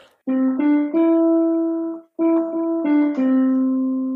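A short melodic segment jingle: two sustained phrases of steady, stepping tones with a brief gap between them, loud, with no talking over it.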